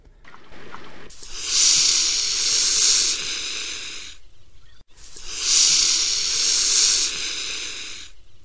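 A mute swan (Cygnus olor) hisses twice, each a long, harsh, breathy hiss lasting about three seconds, separated by a short pause, loud and without any voices.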